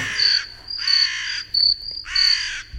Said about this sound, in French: Là, tu peux les mettre. Les corbeaux, tu veux les corbeaux